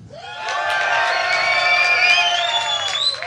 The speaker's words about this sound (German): Trotzdem möchte ich jetzt einmal ganz kurz mitkriegen, ob ihr alle da seid. Splash macht mal Lärm.